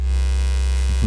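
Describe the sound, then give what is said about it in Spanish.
A vibrator toy buzzes with a steady, low electric hum, droning evenly for about a second with no voices. “Y obviamente, bueno, tiene un poco de vibración esto, pero no como, o sea, esto que, o sea, escuchen.”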